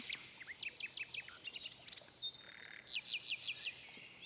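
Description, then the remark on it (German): A nightingale sings alone in a rapid, varied series of bright whistles and sharp chirps, with repeated rhythmic trills toward the end, over a faint background hiss. “Und die Nachtigall fuhr fort zu singen.”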